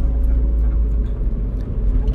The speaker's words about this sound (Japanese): 運転変わってもらって僕が今助手席座って1人喋ってます